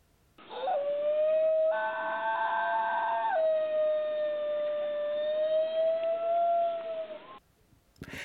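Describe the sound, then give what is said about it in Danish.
A New Guinea singing dog howls in one long, sustained, siren-like tone lasting about seven seconds. The note wavers slightly, and bright harmonics swell briefly partway through before it ends abruptly. “Der kan du også se et billede, og hvis du synes, der har været en sær hyletone indimellem, så er det den syngende hund, du har hørt.”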